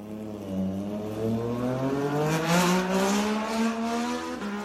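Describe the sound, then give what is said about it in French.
A Moto2 racing motorcycle with a Triumph three-cylinder engine winds up steadily at the Assen circuit, its pitch climbing through a long rising rev with no speech over it, loud, with a harsh high-end whine. “Messieurs, je vous propose qu'on enchaîne tout de suite avec la course mid-size et les trois cylindres de chez Triumph. Alors c'est parti pour la moto 2.”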